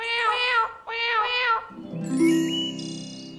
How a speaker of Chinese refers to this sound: 这是小猫在唱歌吗？啊，真的是小猫在唱歌，唱的真好听。